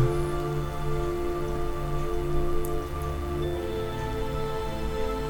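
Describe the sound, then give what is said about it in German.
Steady patter of water dripping like light rain, continuing evenly throughout, layered over a soft sustained musical drone, with no voices. “Reinigung, das Wasser.”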